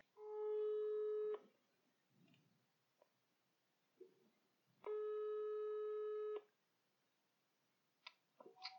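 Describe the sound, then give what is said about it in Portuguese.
A telephone ringback tone sounds while a call is placed: two long, steady, mid-pitched buzzing tones separated by a pause of a few seconds, with faint clicks and rustles in between. “E então vou ligar-lhes aos dois e eu tenho tantas perguntas para fazer sobre isto.”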